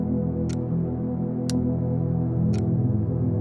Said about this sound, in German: Das Ticken einer Uhr, das du schon so lange kennst.